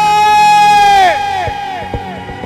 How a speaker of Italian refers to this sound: Vorrei sentire l'applauso per voi.